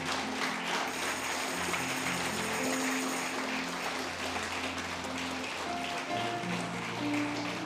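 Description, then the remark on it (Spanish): An audience applauds the Lord after a prayer, many hands clapping in a dense, continuous wash that holds at the same loudness for several seconds, with soft sustained instrumental tones underneath. “es fuerte el aplauso al Señor.”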